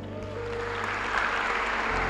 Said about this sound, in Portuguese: Você pode aplaudir pelos 100?